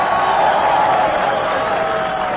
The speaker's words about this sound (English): Let's give her a nice hand.